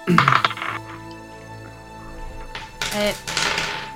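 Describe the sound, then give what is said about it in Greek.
A twenty-sided die clatters across a tabletop in two short rattling bursts, fairly loud, with a quieter lull between them and faint voices in the background. “Ωραία, κάτσε να ρίξω ένα κοσάπλο εδώ.”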